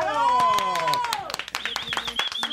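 Scattered, irregular clapping from a crowd, mixed with gliding whistle-like tones and a steady high pitch, fairly loud throughout.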